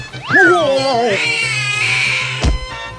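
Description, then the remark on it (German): A big battle tiger lets out a loud, drawn-out growling yowl while eating, sliding downward in pitch, followed by a sustained tonal hum and a sharp knock near the end. “Mein Kampftiger hatte noch nichts zu futtern.”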